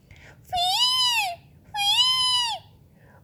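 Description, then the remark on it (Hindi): A myna, also called sarika, gives two drawn-out whistling calls, each about a second long with a brief pause between, loud, with a slightly nasal, wavering tone, near a river. “ये एक चिड़िया की आवाज़ है जिसे सारिका भी कहते हैं”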